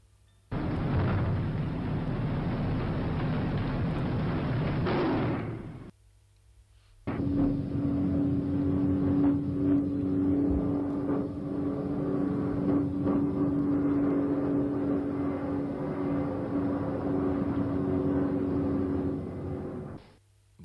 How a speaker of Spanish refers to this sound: Vamos a escuchar esos sonidos de bombas y de avionetas que sobrevolaron aquella noche del año 86.